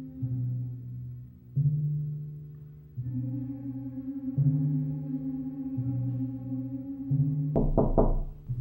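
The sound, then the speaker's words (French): A low, sustained musical drone shifts slowly between notes, then near the end a few heavy, dull knocks on William Hannington's door in the middle of the night of 12 to 13 February, loud and abrupt over the music. “Dans la nuit du 12 au 13 février, William Hannington est réveillé en plein milieu de la nuit lorsqu'on frappe à sa porte.”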